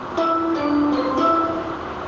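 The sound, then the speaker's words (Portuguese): Inside a moving metro car, a steady electric whine with shifting tones rides over a constant low rumble, fairly loud, with no voices. “E esse áudio é real, tá? Foi ela que gravou dentro do vagão.”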